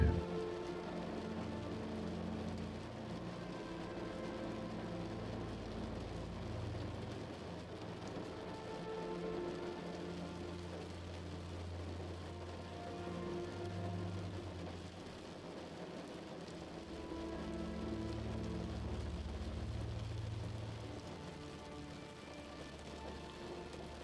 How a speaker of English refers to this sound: Relax into a position of rest as the rain begins to fall on your window.